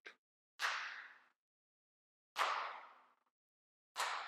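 Sharp whip lashes strike one after another as Jesus is whipped, each a loud snapping crack with a brief rushing tail, spaced about two seconds apart with silence between them and no voices.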